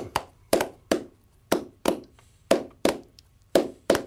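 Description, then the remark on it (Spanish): Muted, hollow flamenco handclaps of the kind called 'sorda', made with cupped hands, about ten soft thuddy claps in a loose steady rhythm, alone with no talking. “Sí, está la sorda, la sorda, la que le llaman sorda, que es esta.”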